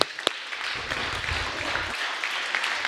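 An audience applauds steadily for a few seconds, a dense wash of many hands clapping at once with a sharp single clap standing out near the start.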